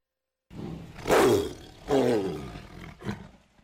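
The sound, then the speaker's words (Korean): A tiger in a zoo roars, three loud, rough growling bursts rising and falling in sequence, the last one shorter, with no talking over them. “바로 동물들의 왕이라 불리는 호랑입니다.”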